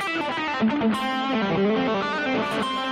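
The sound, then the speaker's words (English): A distorted electric guitar plays a steady, sustained melodic line with rich harmonics, loud, with no voices over it. “Thank you for letting me know you can hear my guitar.”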